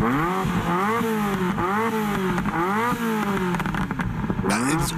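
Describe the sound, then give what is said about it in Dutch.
The V8 engine of an F40 sports car revs loudly again and again, its deep snarling tone climbing and dropping in a steady series of throttle blips, with no voices. “En dan hebben we natuurlijk de F40 eh, met, met die prachtige V8.”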